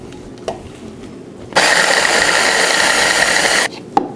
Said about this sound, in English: All right, my hand method isn't working that great. This is super toasted, so let's go to our mini chopper.